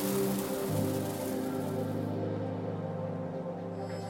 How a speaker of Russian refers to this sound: Вот так вот у нас в Новосибирске середина мая. И сыпет полным ходом град. Мелкий-мелкий град. Конечно, погода испортилась. Сильный ветер.